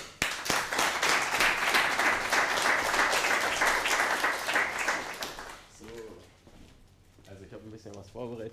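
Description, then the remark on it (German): Loud, dense applause from an audience welcoming a speaker's talk on passion in one's profession fills the first several seconds, then fades as a man begins speaking. “…, das Thema Leidenschaft im Beruf, dein Applaus.”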